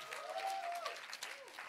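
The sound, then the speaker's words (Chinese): A crowd claps and cheers in a dense, steady burst for Xinzhuang Revival Church (新庄复兴堂), which registered 47 groups of 141 people to read the Bible together. A high sustained whistle-like shout rides over the clapping, with another brief rising-then-falling cheer toward the end. “我知道你们在线上看，欢呼一下。”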